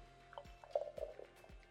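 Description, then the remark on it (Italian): Beer being poured into a glass, a short run of wet glugs and bubbly splashes with faint fizzing, and no voices. “e niente, banda alle ciance, questa è la birra di oggi, ragazzi, benvenuti ad una birra di UX.”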